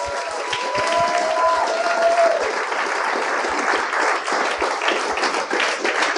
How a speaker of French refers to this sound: Mesdames et messieurs, bonne main d'applaudissements pour Fred Dubé et JC Surette.